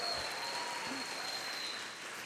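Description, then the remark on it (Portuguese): Steady applause from an audience for the women, a dense, continuous patter of many hands clapping at an even level for a couple of seconds, with no voices standing out. “É lógico que vai ter mulher lá no céu, vocês são incríveis, Vamos aplaudir as mulheres.”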